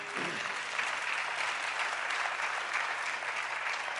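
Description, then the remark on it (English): A church audience gives the Lord a hand clap after the choir, steady, sustained applause, a dense crackle of many hands that stays fairly even in loudness for the full four seconds, with no talking. “Let's get the Lord a hand clap for him.”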